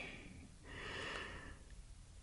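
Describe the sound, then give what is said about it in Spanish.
Soft breathing: a brief airy exhale followed by a longer, breathy rush of air, heard alone against a faint low rumble with no talking. “Siento sus pasos su respiración.”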